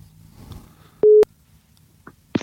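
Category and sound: signal or alarm, telephone ringback tone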